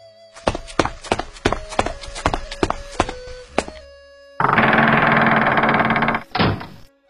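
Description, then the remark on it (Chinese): Heavy footsteps thud in a steady, even rhythm, about a dozen steps, walking up to outside the east door and then stopping. A loud burst of rushing noise follows, ending in a single dull thump. “只听那脚步声走到东边门外，停住了。”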